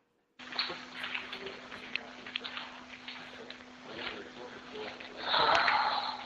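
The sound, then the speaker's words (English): Heavy, raspy breathing plays from a recording, a series of airy inhales and exhales over a steady electrical hum and hiss, growing louder and harsher near the end. “Breathe is just breathing.”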